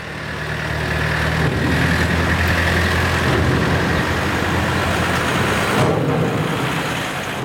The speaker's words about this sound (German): Dienstagmorgen, Viertel ab 8. Fünf Autos und ein Lastwagen fahren zu Romanshorn über Trampen auf die Fähre Friedrichshafen.